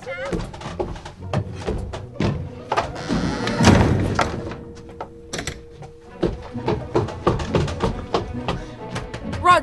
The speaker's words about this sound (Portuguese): socorro, a porta fechou.